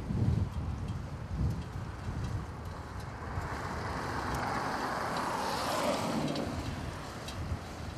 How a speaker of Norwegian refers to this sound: Nå kommer en bil.